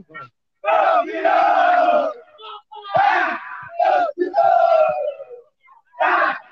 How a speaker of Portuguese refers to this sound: E agora o grito de é campeão do pessoal de Rosário do Sul, viu?